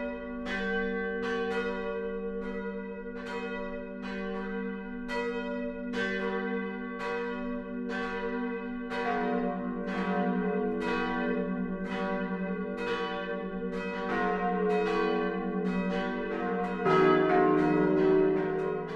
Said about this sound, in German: BR Heimat, 12 Uhr läuten. Es ist 12 Uhr. Das Mittagsläuten kommt heute aus Kersbach, dem südlichsten Ortsteil der großen Kreisstadt Forchheim.